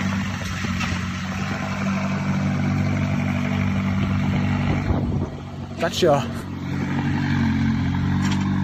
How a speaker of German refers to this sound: Wer die Karre da rausfährt. Ist doch egal. McLaren.